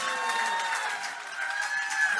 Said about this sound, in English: Put your hands together for Rashad Bilal, Troy Millings, Big Bank, Baby Jade and DJ Scream, Earn Your Leisure, and Big Facts. Make some noise!